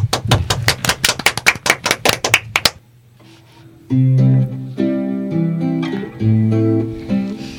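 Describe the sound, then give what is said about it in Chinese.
Audience applause for a pastor and his children, who are about to sing: a burst of sharp, loud claps in a quick, fairly steady rhythm for about three seconds, then it stops and piano-like music with sustained chords begins. “嗯，好的，好的，给他们 热烈的掌声。”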